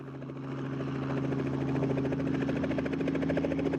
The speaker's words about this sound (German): Anthony van der End nimmt uns mit zu einem Hubschrauberflug über die Südseeinsel.